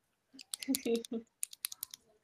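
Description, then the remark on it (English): A short burst of voice gives way to a quick run of sharp, close pen clicks, about half a dozen snapping in an uneven rhythm. “It's like that episode of the Joe Rogan podcast where Mel Gibson was sitting there clicking a pen the whole time.”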